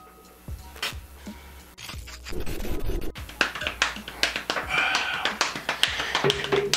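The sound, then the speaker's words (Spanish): Quick, irregular hand taps and scratchy brushing strokes play a loose, syncopated improvised jazz rhythm, with sharp percussive hits scattered unevenly and a brief patch of rustling scrapes in the middle. “Estoy tocando un jazz, escuchas que el tiempo va eh, desacorde de la voz.”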